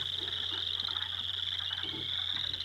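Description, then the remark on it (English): Low, snoring-like pickerel frog calls rumble softly beneath a steady, high-pitched chorus of other frogs or insects, with no voices present. “In the pickerel frog clip, are the frog mm-hmm. sounds the low tones that sound like snoring?”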